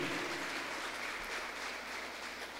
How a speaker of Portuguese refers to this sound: Uma salva de palmas para essas pessoas.